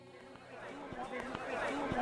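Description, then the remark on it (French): A dense crowd of pilgrims on a beach as Sainte Sarah arrives on the sand; many overlapping voices forming a steady, loud hubbub that swells slightly toward the end, with occasional sharp knocks and raised calls poking through. “Je vous propose maintenant un saut avec moi en plein milieu de la foule, au moment où Sainte Sarah arrive sur le sable.”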